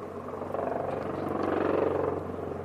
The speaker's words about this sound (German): Jetzt kommt noch der Hubschrauber dazu.